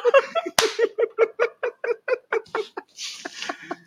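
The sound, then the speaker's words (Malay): Steady chewing of something crunchy, with a sharp crunch at the start followed by a quick, regular series of smacking, munching bites. There is no talking. “buat ASMR kriya Melaka”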